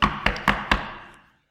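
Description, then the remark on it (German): Four sharp knocks on a door in a steady, evenly spaced rhythm, fairly loud, each ringing briefly before fading into silence. “Und er steht rufend, sehnsüchtig vor der Tür und”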